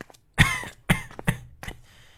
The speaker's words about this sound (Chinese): 就在这时，外头却传来一阵脚步子和咳嗽声。